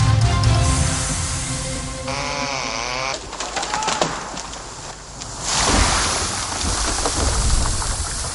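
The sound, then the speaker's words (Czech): Chainsaws run in a forest in the Vysočina region, where trees are being felled because of a bark beetle infestation. One engine revs up and down in a wavering whine over a steady, loud rushing buzz that continues throughout, with no voices. “Zvuk motorových pil je teď v lesích na Vysočině slyšet častěji, než bývá v tomto ročním období zvykem.”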